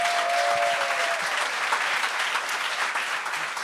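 A comedy show audience applauding the ten comedians waiting backstage before the show begins, a dense wash of many hands clapping at an even loudness for several seconds, with a brief whistle-like tone near the start.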